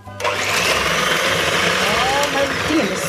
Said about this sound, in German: Was ist zu schnell? mein Mixer.